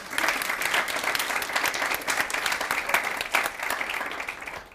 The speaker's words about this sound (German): Birgit Nennstiel, herzlich willkommen, Frau Nennstiel. Applaus